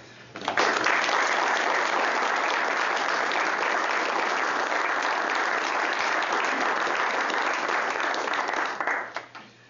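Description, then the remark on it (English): An audience claps steadily for about nine seconds in appreciation of a donor and her guests, a dense, even wash of applause that starts abruptly and tapers off at the end, with no talking over it. “and perhaps we could uh, have a hand of applause.”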